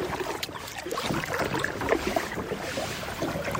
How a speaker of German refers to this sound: Wir verabschieden uns und ich beginne mit einem gemieteten Kajak über den Fluss Nam U Richtung Nong Kiao zu paddeln.